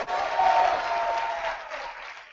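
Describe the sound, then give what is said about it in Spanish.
An audience bursts into sustained applause mixed with cheering voices shouting for joy to the Lord, a dense, steady roar of clapping and shouts that holds for a couple of seconds before easing slightly. “Dele un fuerte grito de júbilo al Señor, aleluya.”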